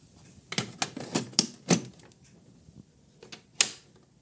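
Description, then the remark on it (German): A game cartridge is pushed into a Nintendo console, heard as a run of sharp plastic clicks and clacks at uneven intervals, ending in one louder snap, with no talking. “Ich werde die jetzt mal einlegen und ihr hört ganz genau zu und schaut mal, ob ihr erraten könnt, um welche Spiele es sich handelt.”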